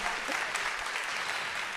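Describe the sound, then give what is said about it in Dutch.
Steady audience applause in a hall for the Wilhelmina Drukker Foundation, a dense crackle of many hands clapping at an even, sustained level throughout, with no distinct individual claps standing out. “Applaus voor de Wilhelmina Drukker Foundatie.”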